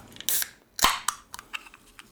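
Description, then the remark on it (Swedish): A can of Coca-Cola is cracked open: a brief hiss, then a sharp metallic pop with a rush of air, followed by faint fizzing crackles. No one speaks. “Nåväl, eh, här kommer i alla fall det första programmet så knäpp upp en burk kol coca”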